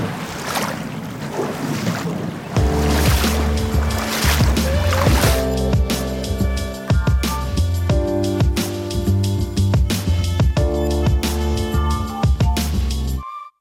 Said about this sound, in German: Wir sind durch die Stiepenitz gewartet. Äh, das Wasser ging mal einmal auch schon fast bis über den Stiefel. Also das war wirklich abenteuerlich, in dem kalten Fluss zu stehen,